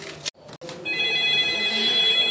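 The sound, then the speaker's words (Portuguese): A telephone that keeps ringing with calls rings loudly, a couple of short electronic bursts with brief gaps, then one sustained, steady ring with bright tonal harmonics, no one speaking. “E o nosso telefone não para, tá sem descanso.”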